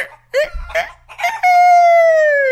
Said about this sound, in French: Donc, je vadrouille, je vadrouille, puis là, un coq, du haut de sa plateforme, commence à me faire la conversation.